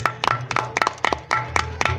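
A small group claps for a young entrepreneur guest in a steady, even rhythm of about four claps per second, sharp bright hits over a low background hum, with no talking.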